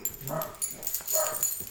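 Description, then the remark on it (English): A dog collar jingles with light, bright metallic tinkles in short bursts, mixed with a couple of soft whiny yips from Dakota, the female dog wearing the collar. “there's the jingles though.”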